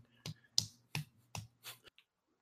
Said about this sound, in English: is going to sort of be slowly clapping.